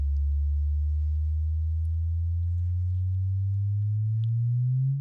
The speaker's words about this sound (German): was das jetzt war, war, das ineinander hineinspiralen und das Verschmelzen am Ende zweier Neutronensterne